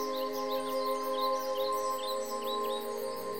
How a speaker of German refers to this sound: Und wunderschöne Vogelmusik klingt von den Bäumen und die Grillen summen.